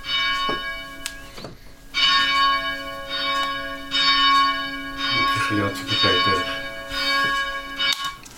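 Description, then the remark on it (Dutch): Church tower bells ring loud, recorded inside the tower, their strikes overlapping in a steady peal, each stroke leaving a long shimmering hum that blends into the next. “Ja, die heb ik zelf opgenomen in de toren hier.”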